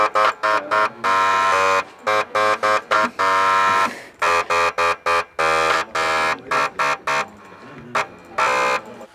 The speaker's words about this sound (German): wenn die Schüler und die Schülerin aus diesen alten diskreten Laufwerken, aus dem Elektroschrott Töne rausbringen. Jetzt sind alle drei miteinander spielen. Ah ja, das ist lauter. Und aber auch besser.